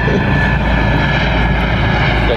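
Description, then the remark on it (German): A loud, steady roar of a helicopter passing overhead, its engine drone filling the whole moment with a constant, broad rumble and no voices. “Lassen den Hubschrauber kurz ab.”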